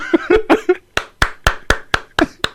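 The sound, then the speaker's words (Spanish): Around ten sharp hand claps in a steady, deliberate rhythm, fairly loud, like a lone slow applause; a brief voice sounds under the first few claps. “Se aplaude.”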